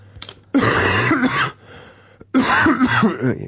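Two hard, rasping coughs burst out, separated by a short pause, each harsh and throaty with a rough, wet edge; a deliberate demonstration cough by a person who has been ill.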